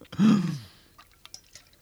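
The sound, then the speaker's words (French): A single loud slurping sip of coffee lasting about half a second, followed by a few faint wet clicks and swallowing sounds. No one speaks. “Je vais m'en prendre une gorgée d'ailleurs pendant, que...”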